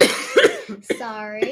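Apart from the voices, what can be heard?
cat coughing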